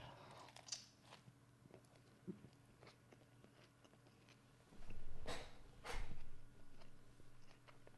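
Chewing and biting into a bread roll, eaten as a spontaneous ASMR recording, with soft crunchy bites and moist mouth sounds, two louder bursts of chomping near the end, no talking.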